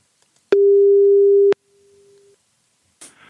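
A telephone ringback tone on an outgoing call placed by the Stripjournaal program: one steady, loud one-second beep that lingers faintly for a moment, followed by a short rustle as the line picks up.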